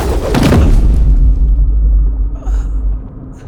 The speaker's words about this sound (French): Finalement, il atterrit dans un bruit sourd.